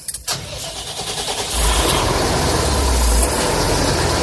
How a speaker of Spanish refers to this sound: ¿podemos poner en marcha el tractor? Podemos, podemos. Pues venga, adelante.